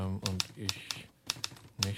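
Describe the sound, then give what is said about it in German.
Sharp typewriter keystrikes clack in an uneven rhythm, about eight distinct hits over two seconds, while a voice speaks steadily underneath; someone typing a letter on a typewriter in a hotel. “Seit er das Hotel betreten hatte, trug er Dickies Mütze sogar jetzt an der Schreibmaschine.”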